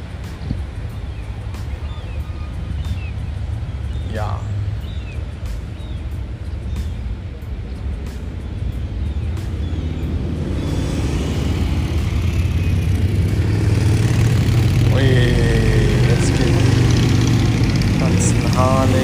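Steady low engine rumble of cars driving up onto a ferry in Puttgarden on a sunny 25-degree day with clear blue sky, growing louder and busier in the second half, with occasional clanks and a constant dense mechanical drone.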